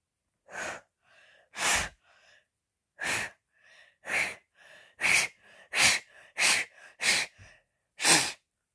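Someone attempts to whistle but produces mostly breathy blowing: a series of about ten sharp, airy puffs with faint, wavering whistle tones slipping through between them, no speech.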